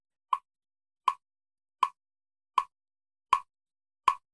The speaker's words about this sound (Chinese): 我本来以为啊，这个节拍器的声音，哇，是个很棒的这个呃正念训练的 anchor 啊，这个定锚。结果我有些病人听到这个声音说，好紧张哦。我这个还是慢一点的，好，可能之前用的比较快，然后就会说听到这声音让我好紧张哦。